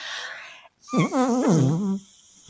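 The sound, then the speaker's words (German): A muffled, strained scream pressed into cupped hands held over the mouth, a scream made without voice, rising and wavering like a whine for about a second, moderately loud, with breathy rustling before it. “Die Hände über den Mund legen und dann ohne Ton zu schreien.”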